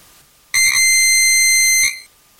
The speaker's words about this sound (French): L'oreille perçoit des sons dont la fréquence varie entre 16 Hertz et 16 000 Hertz, 16 Hertz étant le plus grave et 16 000 Hertz le plus aigu. Par exemple, voici un son grave. un son aigu.